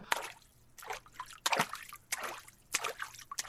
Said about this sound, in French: Puis le canard entre à son tour côté cour, euh, côté basse-cour même. Il se dandine jusqu'à l'étang, y plonge, et c'est la baignade